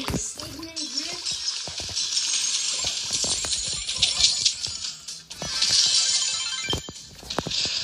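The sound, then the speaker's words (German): Metallic coin-like clinks and sharp hits repeat irregularly over a steady, loud hissing wash, with a brief murmur of voice near the start. “Eine Münze hat getroffen.”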